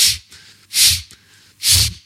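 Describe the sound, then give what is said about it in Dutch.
Three loud, forceful breaths blown out in a steady rhythm, each a sharp rushing burst with brief quiet gaps between, like vigorous breathwork exhalations, a breathing technique from the Art of Breathing course. “Raad ik ook wel aan dat is, eh, ja, dan moet je echt zo je handen in je zij liggen en een bepaald soort ademhaling.”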